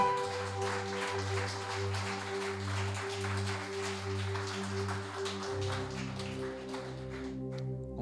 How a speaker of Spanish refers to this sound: ¿Y esta persona es? Jesús. Jesús. Fuerte aplauso, ¿no?